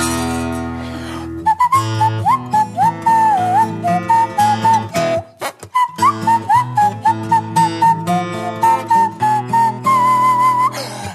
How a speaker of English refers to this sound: And if I don't whistle, Sam Payne will curse.